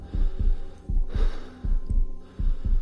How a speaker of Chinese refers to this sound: 此时，马哲的心跳加速，脑门上竟挂满了细密的汗珠。